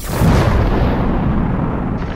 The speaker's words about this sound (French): Au début, il n'y avait rien. Puis, le Big Bang.